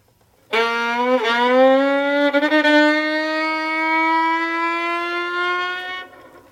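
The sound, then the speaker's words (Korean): A voice mimics a motorcycle pulling away: a steady, buzzing engine drone with two quick revving hitches early on, pitch creeping slowly upward for about five and a half seconds before cutting off. “자 그러면 오토바이”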